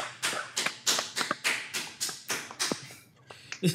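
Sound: golf clap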